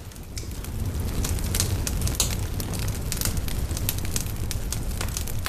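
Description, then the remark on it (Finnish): A campfire crackles steadily, with frequent sharp pops and snaps over a low, continuous rumble of burning, fairly loud with no voices, as evening slowly grows dark. “Katselemme tulta, liekkien liikettä – ja ilta hämärtyy vähitelle ympärillämme.”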